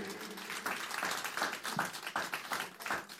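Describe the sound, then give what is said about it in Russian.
An audience applauds the estrada ensemble of a show group on stage and its leader Lyudmila Smirnova: many hands clapping in a dense, steady crackle that holds at an even, moderate loudness for the whole few seconds, with no voices standing out. “я хочу еще раз напомнить, что у нас на сцене эстрадный коллектив шоу-группы …, руководитель этого замечательного коллектива Людмила Смирнова и им аплодисменты.”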